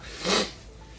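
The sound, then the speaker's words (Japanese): A single short sneeze bursts out, a quick breathy blast that fades within a fraction of a second against a quiet background hiss. “はいお大事になさってくださいませ”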